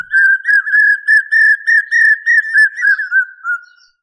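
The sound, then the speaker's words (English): A common hawk cuckoo gives its 'brain fever' call: loud, clear whistled notes in quick repeated groups, steady at first, then dropping slightly in pitch and trailing off at the end, with no other sounds. “Also, the common hawk cuckoo has a very distinctive call that gives it its other name. Listen to it and you will know.”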